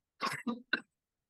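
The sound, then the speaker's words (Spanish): Three quick coughs in a short burst, the first longest and the last sharpest, with silence afterward. “Me disculpas, es que te atrevo tos.”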